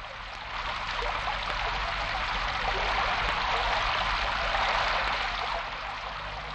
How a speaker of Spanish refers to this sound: el niño curioso, vio cómo empezaba a llover. Mira, abuela, cómo llueve. Quiero saber por qué llueve.